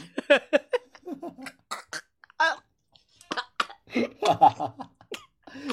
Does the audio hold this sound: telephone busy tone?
no